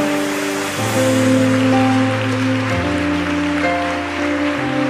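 audience applauding loudly

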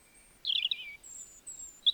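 european robin singing

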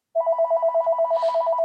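phone ringing

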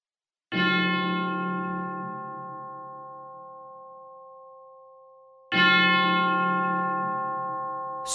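church bells ringing

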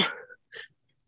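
sneeze

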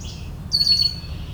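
yellow warbler singing

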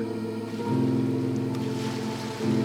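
roaring sea waves

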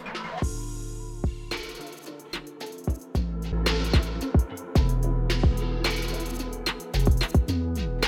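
music track

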